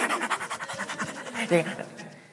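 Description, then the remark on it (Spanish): A voice imitates an excited dog panting as it comes out to greet its owner, quick rhythmic huffs repeating steadily for a couple of seconds, fairly loud, ending in a brief vocal squeak. “¿Qué animales salen a recibir al dueño? Los perritos son los únicos que hacen eso.”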